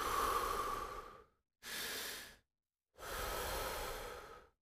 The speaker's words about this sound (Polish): Wdech, wydech. Wdech, wydech. Bardzo dobrze. Poczuj wypełniające cię świeże powietrze wraz z wydechem i to, jak cały stres opuszcza twoje ciało przy wydechu.